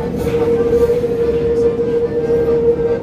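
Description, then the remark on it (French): A Paris metro train rumbles loudly and continuously, with a sustained metallic squeal of brakes ringing steadily over the low, grinding clatter of wheels on rails. “tous ces bruits, le bruit du métal, euh, le bruit des freins, le bruit de l'accordéon, les tourniquets du métro.”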